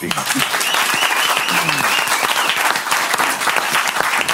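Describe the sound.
Sustained applause from an audience, a dense wash of steady clapping that stays loud and even for the full stretch, with faint voices mixed underneath.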